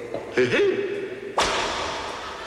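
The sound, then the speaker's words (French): A brief vocal sound, then a single sharp whip crack that snaps loudly and rings out in a fading tail, like a sound effect. “Sol Carnus, où ce sol retrouve son brillant, où je te fais fouetter.”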